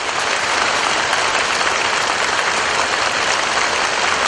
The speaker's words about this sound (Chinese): 全世界最美妙的音声，就是掌声。再来一遍啊！谢谢谢谢，我这三天呢，所有的辛苦，在你们的掌声下，全部荡然无存了。